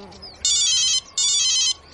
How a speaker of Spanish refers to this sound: Al día siguiente, un móvil suena en el patio. El teléfono está colgado de un cable que discurre de un lado a otro.